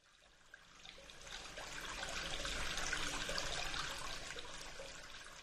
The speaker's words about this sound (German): Was kommt da aus dem Wasserhahn? Es ist pechschwarz und stinkt grauenhaft. Das war schon so, als du unter der Dusche standest und das Wasser einen seltsam schwachen Druck hatte.